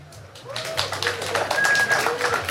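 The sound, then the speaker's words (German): An audience votes by applause on a question, breaking into clapping after a brief lull, a dense patter of many hands that grows fuller and keeps going steadily, with faint voices underneath. “Bitte mit Applaus abstimmen.”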